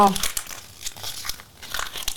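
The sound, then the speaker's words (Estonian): A sheet of paper with things written on it is folded and crumpled up, a dense run of crackling, crinkling rustles with a few louder bursts, continuing steadily for a couple of seconds. “vot kõik asjad paned siia kirja paned ta kokku, kortsutad ilusasti ära”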